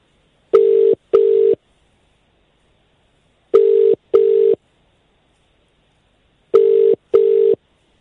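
A telephone ringback tone on a call placed back to a dropped caller rings three times, each ring a quick double burst, repeating at steady intervals. It is loud and clear, with silence between rings and no voices.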